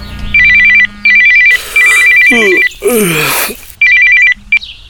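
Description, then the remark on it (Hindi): A phone ringtone rings loud in repeated electronic trilling bursts, with a brief burst of sweeping, chirping tones in the middle, as a call comes in one morning. No one speaks. “रात का थका हुआ गौतम अगली सुबह अपने बिस्तर पे ही था कि तभी शगुन का फोन आ गया”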